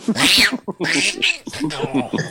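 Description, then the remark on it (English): A cat named Brummy meows loudly, three drawn-out, wavering cries in quick succession, with no talking over them. “Though Brummy has just made her talk, talk appearance. Meow.”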